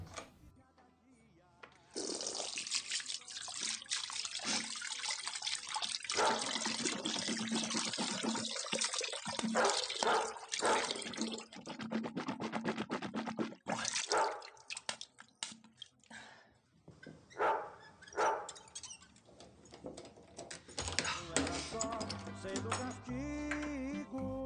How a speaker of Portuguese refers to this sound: Então tá bom, deixa eu só passar uma água no rosto aqui que tá foda.